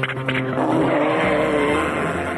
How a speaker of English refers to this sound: his engine is just a big fart noise.